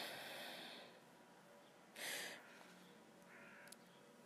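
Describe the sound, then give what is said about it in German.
Faint birds call outdoors in a few short, harsh bursts, spaced apart, heard from a balcony over a quiet, hissy background. “Stimmung, die Stimmung passt ganz einfach die Glocken läuten, die Vögel hört man von draußen.”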